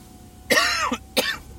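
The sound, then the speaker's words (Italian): A chesty cough and throat clearing from a person walking to work, fairly loud: one longer raspy, phlegmy burst followed by a shorter second hack, with no talking. “Io sto andando al lavoro col petto di tosse, quello c'è sempre.”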